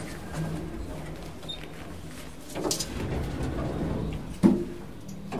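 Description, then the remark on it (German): An elevator door slides shut with a brief whoosh, then lands with a single muffled thump, set against a low mechanical hum with no voices. “ist Julia im Aufzug angekommen, um in die nächste Ebene zu fahren. Türe schließt.”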